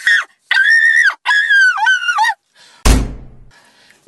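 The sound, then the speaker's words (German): A series of high, wavering whining tones gives way to a single loud, heavy door slam, its low boom dying away over about a second. No one speaks. “Ich glaube, es ist gut, wenn Sie die Tür zumachen. Ganz schnell.”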